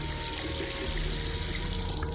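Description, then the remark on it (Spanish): Water runs steadily into a bucket, a continuous, even rushing and splashing with a faint ringing hum underneath, holding the same level throughout without any voices. “Odette llena un cubo de agua.”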